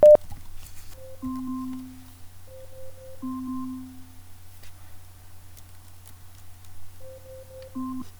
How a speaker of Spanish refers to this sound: Bueno, también podemos poner temporizadores, miren. Alexa, pon un temporizador de 20 segundos. 20 segundos, empieza ahora.